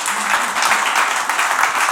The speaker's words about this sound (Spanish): El Señor es bueno. Un aplauso para nuestro Padre Celestial, verdad.